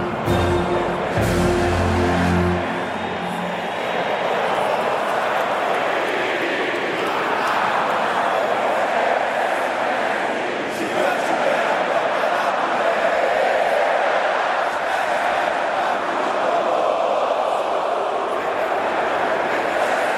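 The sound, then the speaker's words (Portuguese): A huge stadium crowd sings the Brazilian national anthem together, a dense, roaring wash of voices that swells steadily and fills the whole stretch, with no single voice standing out. “Vamos ao hino nacional brasileiro.”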